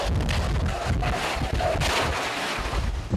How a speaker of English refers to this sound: Police cars on the roads pounded by those heavy winds and rain, winds chewing up this gas station, the roof collapsing, then carried away by the winds.